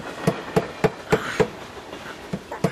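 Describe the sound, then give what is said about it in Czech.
A train rolling past, its wheels making a steady clickety-clack of sharp, evenly spaced knocks over a low rumbling background, with no voices. “Jede vlak. Aspoň překryje ten randál.”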